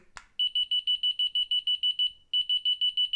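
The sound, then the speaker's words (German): A wireless radio receiver's alert sounds: after a short click, shrill electronic beeps repeat quickly and evenly, stop briefly, then resume at the same fast pace. No one speaks. “aber dieses Piepsignal ist in der Frequenz, dass wir das eigentlich gut hören können.”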